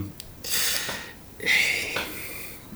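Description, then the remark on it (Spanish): A man sniffles and sobs breathily and wheezily in two bursts, with short gasping inhales between them and no talking. “Míralo, si está llorando también. Ah, está llorando.”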